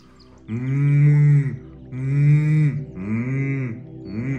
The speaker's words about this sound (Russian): Точно так же классно работает мычание. Что такое мычание? Да, это для тех, кому сложно дается вибрация. Это вот то, что используется в мантре. Мало кто знает, что мантра не звучит как ом, она звучит как аум. И мы мычим.